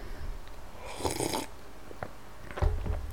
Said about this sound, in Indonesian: gila nih napas gue kedengeran mulu ya